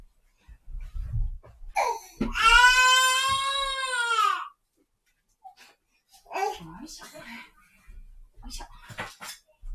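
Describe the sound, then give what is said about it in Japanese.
A young boy, the speaker's son, wails loudly in a long, sustained cry during a live stream, followed by shorter whimpering sobs and fussing, with clattering household noises and low thumps. “お昼のライブ配信を始めますが、ちょっと息子が泣いてるのでお待ちください。”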